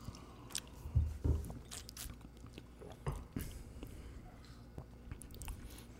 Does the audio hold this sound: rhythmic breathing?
no